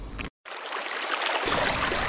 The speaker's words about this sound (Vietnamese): tiếng nước sông réo ì ầm